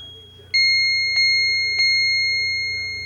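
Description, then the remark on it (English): An Autochron clock chime strikes three clear bell tones in even succession, each ringing out and lingering as it slowly decays, over a faint low hum with no talking. “It will chime the hour, of course, and the half hour.”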